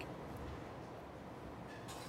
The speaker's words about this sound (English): And um, you can hear the rain uh, outside there's a terrible storm happening as you and I speak.